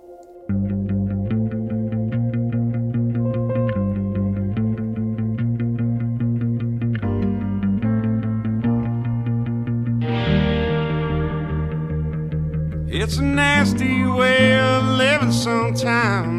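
A song's instrumental opening: steady, driving electric guitar with a warm, effects-laden tone over a solid low end, swelling louder toward the end as a singing voice seems to come in.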